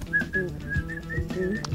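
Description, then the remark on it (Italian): Someone whistles a short, bright melody, a little song about Pinamonti, the notes shifting in pitch over a low background murmur. The whistling is steady, with brief pauses between phrases. “io sentivo questa cosa, c'era proprio Fischia, Pinamo, Fischia il Pinamonti, era una esatto, canzoncina esatto, che si usava a Piano Argentina.”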